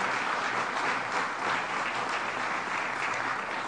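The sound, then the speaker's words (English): A crowd applauds Howard Zemsky steadily, a dense wash of many hands clapping at once that holds at an even, fairly loud level throughout without pausing. “Let's give him a round of applause.”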